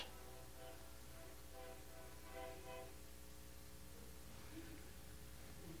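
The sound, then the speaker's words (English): A train horn blares in long, sustained tones over the steady rumble of rail cars, the sound holding fairly loud and continuous throughout. “He's got a ministry, honking that horn.”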